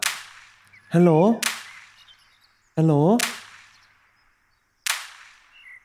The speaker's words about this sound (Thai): ทำไมมีแต่เสียงยิงปืนกดโทรผิดหรือเปล่าเนี่ย ฮัลโหล ฮัลโหลนี่ถ้าไม่พูดเราวางสายแล้วนะ